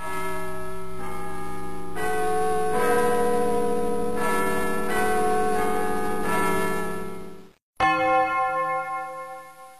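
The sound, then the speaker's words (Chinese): A clock bell strikes twelve times in a steady, unhurried rhythm, each loud resonant chime ringing on and overlapping the next, with a brief silence before a final strike fades out. No voices. “钟声响了十二下。”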